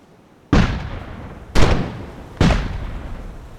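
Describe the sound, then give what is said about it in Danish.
Three heavy booms of cannon fire, each a sharp blast that rumbles away before the next, spaced roughly a second apart and loud against a quiet background with no voices. “og det blev efterhånden skudt i små stykker.”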